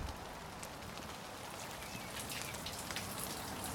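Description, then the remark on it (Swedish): Heavy rain on a May day, after twelve hours of downpour, pours down in a steady, dense hiss, with scattered drops spattering on a hard surface. The downpour holds at an even level throughout, and no one speaks. “Det är en av de där majdagarna då himlen har öppnat sig och regnet har vräkt ner i tolv timmar redan innan jag påbörjar min dryga mil långa cykelfärd till Frescati Hage”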